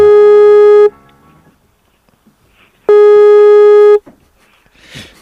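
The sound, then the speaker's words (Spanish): Two loud, steady telephone line tones of an outgoing call, each lasting about a second, separated by a couple of seconds of near silence, followed by a faint rustle at the end. “En serio tienen que escucharse los tonos.”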